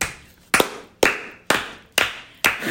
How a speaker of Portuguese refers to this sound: Palmas pausadas. Agora pede pra ela repetir.